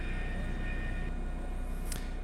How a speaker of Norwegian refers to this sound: Ja, Sånn høres det ut eh, om bord i helikopteret